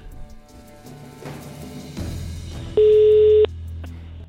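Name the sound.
telephone ringing tone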